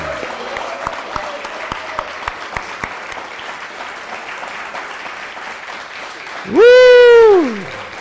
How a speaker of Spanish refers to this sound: Si ese aplauso fue para la comunidad, está muy bien. Si este aplauso fue para la comunidad mundial, está muy bien, pero vamos a levantar una fuerte ovación para el Eterno.